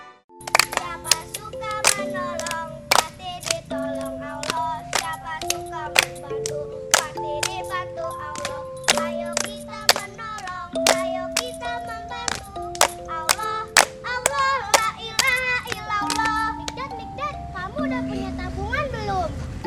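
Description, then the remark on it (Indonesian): Children clap their hands in a lively, steady rhythm, dozens of sharp claps ringing out over a backdrop of sung, melodic voices that continue throughout. “Tepuk tangan semuanya.”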